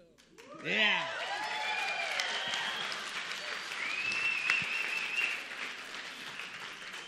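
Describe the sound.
A crowd bursts into sustained applause for a band, lasting several seconds, with sharp whistles sliding up and down and a long high whistle rising over the steady clapping and cheering voices.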